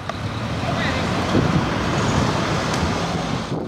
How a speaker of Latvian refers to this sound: Uz tā izlec vairāki ugunsdzēsēji. Viņi izritina šļūtenes un pirms vēl pagostās pieslēgt, no smagās mašīnas sāk šļākties ugunsdzēsības putu šaltis. Drīz vien zālienu noklāja balta putu sēga.